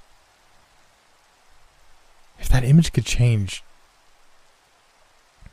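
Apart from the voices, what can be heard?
rain falling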